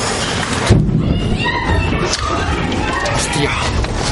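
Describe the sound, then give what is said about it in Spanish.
Shrill, wavering screams cut through a loud, noisy background in a club, high voices crying out for a couple of seconds before sinking back into the din. “Él le obliga a acercar la cara a su entrepierna cuando se escuchan unos gritos.”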